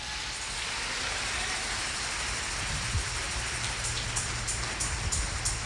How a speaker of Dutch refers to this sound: Laten we hem een daverend applaus geven.